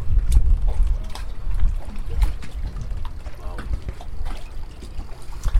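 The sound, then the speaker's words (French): Water laps and sloshes irregularly against hulls or a quay while steady wind rumbles loudly across the mic, with scattered splashes and knocks in an open harbour setting. “avec cette mélodie aquatique, ce vent qui nous verse”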